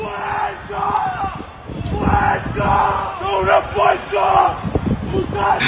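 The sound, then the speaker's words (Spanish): A crowd of fans shouts and cheers continuously, a loud, dense roar of many voices with rising and falling chant-like swells throughout. “Así va a gritar, así va a gritar el fanático”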